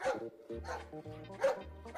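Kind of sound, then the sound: animal, police dog barking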